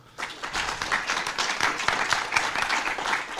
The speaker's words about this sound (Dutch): Ja, dat horen we graag, dat het ondernemers niet alleen om geld gaat, maar ook dat ze hun maatschappelijke verantwoordelijkheid nemen. Ik vind dat dat een applaus verdient.